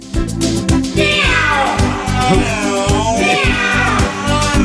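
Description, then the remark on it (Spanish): Cat-like meows slide up and down over a full band playing a steady rock beat in a song, with a guitar answering them; two drawn-out mewing phrases stand out loudly in the mix. “Un gato, ¿no?”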